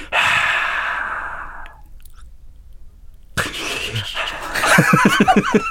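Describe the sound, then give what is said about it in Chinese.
Sea waves wash over coarse black coral sand: a hissing surge that fades out, a brief lull, then a second rush ending in rapid, gritty crackles as the water drains back. No voices. “好，那你听听看，黑珊瑚的沙的声音是怎？”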